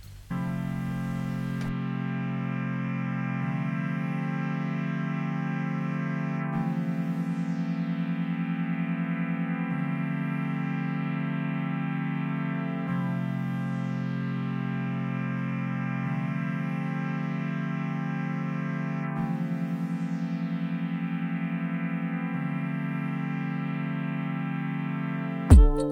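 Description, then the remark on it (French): A music track played on air during a radio broadcast: thick, distorted, droning chords held steadily and shifting every few seconds, with an echoing, effects-heavy sound. It stays loud and even throughout, with no voices. “Alors on va faire une petite pause pour écouter un deuxième titre”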